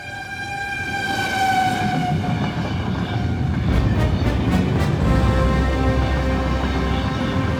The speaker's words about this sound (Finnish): jopa 1980-luvulla, jolloin saamme mielenkiintoisemman junan äänen.